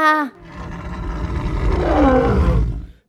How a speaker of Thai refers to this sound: และแล้วเมื่อเวลาและสถานที่ประจวบเหมาะ เจ้าสิงโตก็เผยท่าแท้ ด้วยการขู่คำราม แยกเคี้ยวออก พร้อมจะตะครุบเจ้าหมาป่า